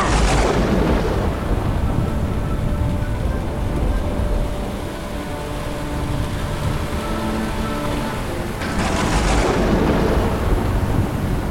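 An approaching thunderstorm faced by a ship's crew, with deep, rolling thunder rumbling continuously under steady rain-like hiss, swelling into louder crashes near the start and again toward the end.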